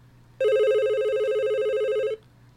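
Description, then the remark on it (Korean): A telephone rings with an incoming call in one sustained electronic burst lasting nearly two seconds, bright and steady with a slight warble, over a faint low hum. No one speaks. “그리고 1년 후 그 사람에게서 전화가 왔습니다.”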